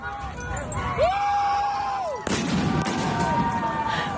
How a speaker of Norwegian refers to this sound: Unge demonstranter roper idet de setter fyr på Ayatollah Khomeinis hjem.